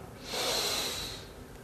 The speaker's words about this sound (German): Und ich lade dich gleich in einen Augenblick ein, mit mir zusammen und der ganzen Gruppe einen tiefen Atemzug zu nehmen. Und beim Ausatmen kannst du deine Augen einfach schließen. Okay, dann atmen wir alle tief ein